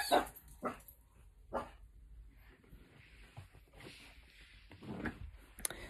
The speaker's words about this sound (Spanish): Disculpen ahí eh, una interrupción de, mi perrita Leia. Por aquí. Este. Pues es, lo malo de grabar de día.